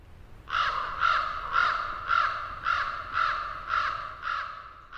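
A raven gives a steady run of about eight harsh, croaking calls, evenly spaced and fairly loud, with no voices in the background.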